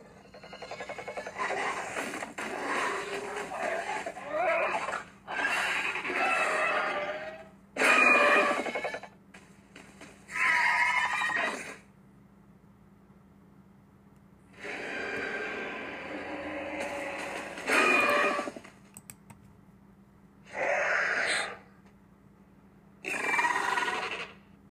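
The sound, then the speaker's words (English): A series of loud dinosaur calls from Jurassic World Camp Cretaceous, mixed from the sounds of lions, birds, alligators, pigs and horses: rasping roars, grunts and squeals in long and short bursts separated by brief pauses, with no talking. “the three individuals in Jurassic World Camp Cretaceous are mixed by, and this is what I hear, a mix of lions, birds, alligators, pigs, and horses.”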